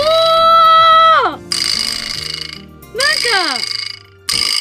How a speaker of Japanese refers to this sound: これ何ビブラスラップどうすんのこれ叩く金属の部分